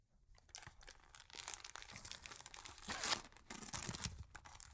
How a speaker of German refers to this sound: Ähm, guck mal, ich habe dir, hab dir ein Geschenk mitgebracht. Magst du es auspacken? Ja, total gern.